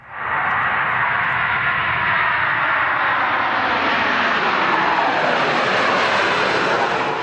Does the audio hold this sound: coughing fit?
no